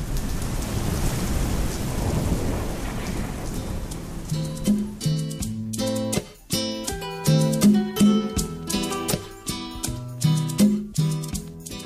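rain falling with thunder

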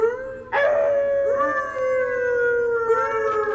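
wolves howling

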